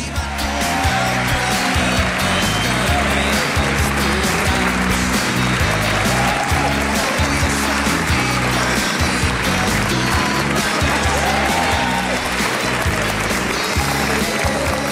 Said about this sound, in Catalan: 4 minuts de les 12 del migdia encarem aquesta segona hora de bolo des del Centre Cultural de la Mercè i amb tots vostès …, un fort aplaudiment.